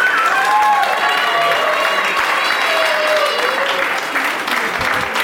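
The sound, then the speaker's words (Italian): Loud, sustained audience applause fills the whole stretch, dense clapping mixed with whistles and a few cheering voices, steady from start to finish. “Un applausometro!”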